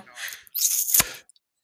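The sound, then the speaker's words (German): A wet sucking hiss as a person draws air through a gap in their front teeth, ending in a sharp smack, made deliberately as an imitation of an old man's noise, lasting about a second. “Ja, ja die ziehen Luft durch die Schneidezahnlücke hier vorne.”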